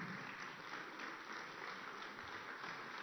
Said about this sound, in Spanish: Amén, gloria a Dios. Démosle ese aplauso al Señor.